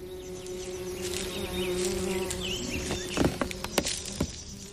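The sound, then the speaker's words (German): A bee buzzes steadily with a low, droning hum, joined by a few soft clicks and taps near the end; no one speaks. “Tschüss, kleine Biene, Spinne und Käfer.”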